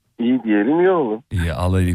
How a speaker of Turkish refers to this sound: Ee, biraz telefona yakın ol sesin boğuk geliyor. Duyamıyoruz seni. Biraz parlat sesini şöyle güzel gelsin.